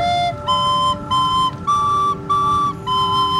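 A flute performance at a Christkindlesmarkt (Christmas market): short phrase of sustained, breathy notes, each held about half a second with brief gaps, moving between a few middle-high pitches over a steady low background hum.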